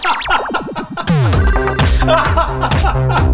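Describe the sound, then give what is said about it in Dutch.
A phone rings loudly with a melodic electronic ringtone, warbling tones sliding at first, then settling into a repeating rhythmic tune that plays on without any voices. “Zet die telefoon nou een keer uit.”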